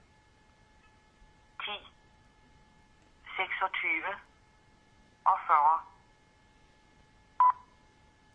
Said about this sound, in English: You could call a number. 26 og 50 and she would tell you what time it was.